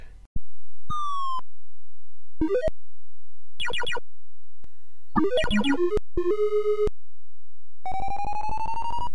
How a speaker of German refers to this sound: Ja, und äh, was ich nicht mehr so weiß, war so die Akustik des Spiels. Hast du da vielleicht was für uns? Also, ich versuche mal das kurz nachzumachen, wie das auf dem C64 klang.